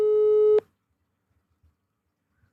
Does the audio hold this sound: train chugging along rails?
no